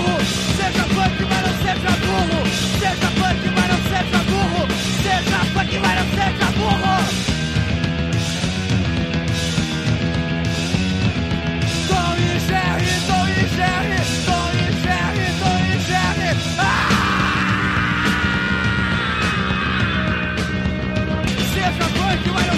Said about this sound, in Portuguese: uma gritaria com guitarra soando atrás, nada muito elaborado, mas é divertido e, e tenta se comunicar, né, de alguma forma com a galera que estava curtindo um, um, movimento mais pesado, mais punk naquele rock brasileiro